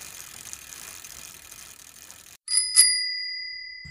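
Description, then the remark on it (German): A bicycle bell rings twice in quick succession, bright and metallic, its tone lingering afterward, preceded by a steady ticking of the freewheel ratchet as the bike is ridden to the train station. “Als erstes fahren wir mit unserem Fahrrad zum Bahnhof.”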